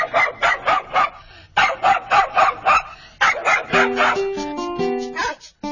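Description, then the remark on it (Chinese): A large hunting hound dashes past a chicken coop, barking in quick, loud runs of about six barks each, with short pauses between runs, then ends in higher, drawn-out yelps and whines. “大猎狗呢，一阵风似的从鸡舍旁飞奔而过，糖块的诱惑实在太大了。”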